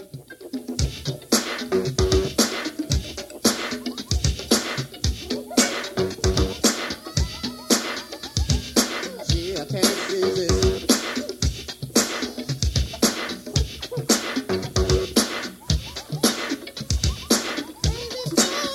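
A band plays loudly and continuously, with a steady, driving drum beat and dense instruments filling the sound. It has the rough, slightly raw quality of a live rehearsal recording.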